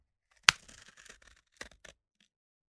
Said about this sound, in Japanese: はじめに作ったパイプの真ん中に、ハサミで切り込みを入れる。